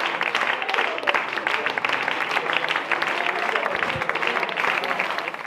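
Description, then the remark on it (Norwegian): Steady, dense applause from an audience at a performance in the township of Philippi, South Africa, after dark. Many hands clap continuously at an even loudness for several seconds, with no voices standing out. “Når applausen har lagt seg, kommer en gruppe unge gutter med caps og store sølvkjeder rundt halsen ut av lokalet.”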